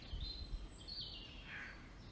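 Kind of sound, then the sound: bird, birdsong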